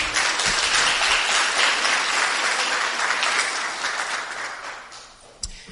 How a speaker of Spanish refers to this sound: Amén. Demos un aplauso a nuestro Padre Celestial en esta hora.